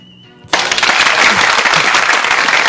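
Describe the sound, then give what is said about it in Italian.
Applause bursts in abruptly after a brief quiet, a dense wash of many hands clapping loudly and steadily until the end, with no voices over it. “Tu, tu dovresti renderti conto che anche quando gli applausi arrivano tardi c'è qualcosa che non va è il tasto che non funziona, forse”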